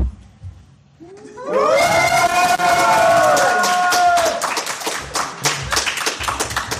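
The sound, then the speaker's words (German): A small audience of about seven people at the Mac in Erfurt cheers with a rising, drawn-out "yay" of voices, then breaks into scattered clapping that continues steadily to the end, loud and lively. “Sowas wie Yay wäre super.”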